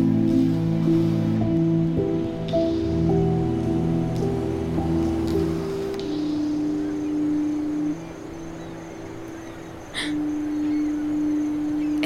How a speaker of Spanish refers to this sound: Ese sonido eh, es el... La sirena del faro. ¿Hay alguien trabajando ahí? No. Se activa por sí sola cuando hay mucha niebla.